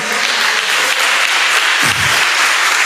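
Sustained applause from a large audience at a Spanish-language religious service, clapping for the Lord: a dense, steady wash of many hands clapping at once, loud and continuous with a brief low thump partway through.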